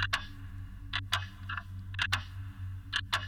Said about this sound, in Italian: Fissando se stessa, coperta di sangue, sentì un ticchettio debole. Guardò al piano di sotto e vide un orologio da taschino. Fissò le sue mani, ascoltando il ticchettio per quello che sembrò un tempo infinito.